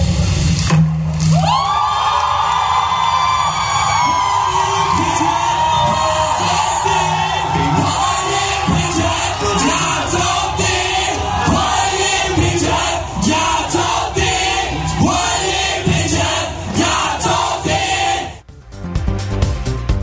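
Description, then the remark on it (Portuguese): A large crowd outside a parliament erupts into loud, sustained cheering as the approval of a marriage equality vote is announced, with whoops and excited shouts swelling together for nearly twenty seconds before the noise briefly breaks off near the end. “Você confere agora o momento em que todo mundo ali fora é, do parlamento acompanhava ao vivo a votação e quando a aprovação foi anunciada, a comemoração.”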